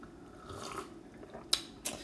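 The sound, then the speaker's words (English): Quiet sipping of Bombay Sapphire gin from a glass: soft wet mouth and liquid sounds, then two short, sharp clicks near the end, with no talking. “As I sip on this Bombay Sapphire.”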